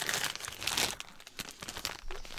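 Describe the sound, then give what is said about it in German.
Crinkly plastic wrapper of a caramel wafer being torn open and crumpled, a dense run of sharp, bright rustles and crackles for a couple of seconds, with no voices. “Ja, ich würde ja noch so eine Waffel nehmen, wenn es gerecht ist.”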